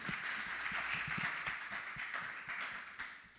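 A crowd applauds steadily, many hands clapping in a dense, continuous patter that holds at a fairly even level and tapers off slightly toward the end.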